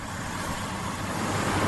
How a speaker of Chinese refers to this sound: 远处的收割机仍在不知疲倦的作业。